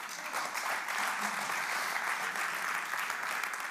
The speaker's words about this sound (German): Uh, Applaus!